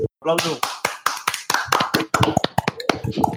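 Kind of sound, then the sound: crowd, applause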